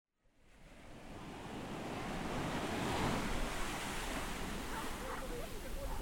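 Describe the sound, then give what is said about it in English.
Ocean waves and surf roll in a steady, broad wash of noise, building gently over the first few seconds and then holding loud and continuous, with a faint wind-like hiss and no voices. “Anyways, with that, here is Sounds of the Sea.”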